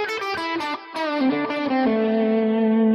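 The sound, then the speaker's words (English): A distorted electric guitar plays a quick minor pentatonic lick of several picked notes, then settles into a long sustained note that rings out to the end, with no talking. “The difference is, is if I keep those two separated, I get some really cool minor sounds.”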